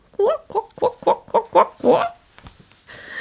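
chickens clucking

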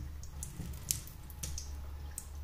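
water draining

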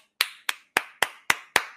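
hands clapping

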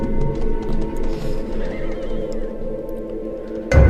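horse neighing

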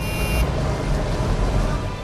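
city traffic

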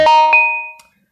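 phone notification sound

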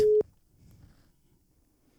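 telephone ringing tone

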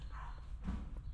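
dog barking

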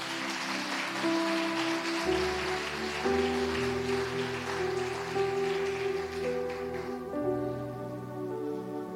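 audience applauding

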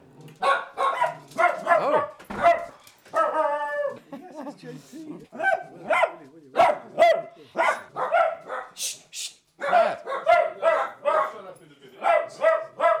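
dogs barking and whimpering

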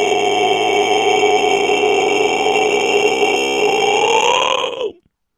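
burp

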